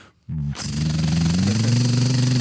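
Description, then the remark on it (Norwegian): A voice on the phone imitates the noise of a car's faulty right front wheel when turning left: a loud, continuous buzzing drone with a steady low pitch that rises slightly near the end, after a short faint pause. “Da jeg ringte og skulle forklare, for at det var noe galt på høyre framhjul, fant for når jeg svingte til venstre, så sier jeg”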